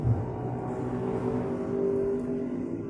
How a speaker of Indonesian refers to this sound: mohon maaf sebelumnya karena ini suara motor yang mungkin terdengar